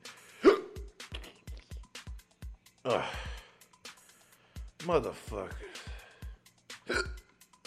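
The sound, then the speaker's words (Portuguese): A man hiccups repeatedly, sharp sudden gulps at uneven intervals, with exasperated groans and a short spoken curse between them. “Eu odeio quando pega. Quando pega soluço assim.”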